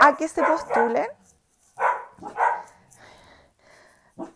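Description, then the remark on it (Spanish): A person speaks briefly, then their dogs break into a few loud, sharp barks at a dog passing outside, spaced out over a couple of seconds, with one last short bark at the end. “Perdón el ruido, pero es que parece que va pasando un perro por afuera.”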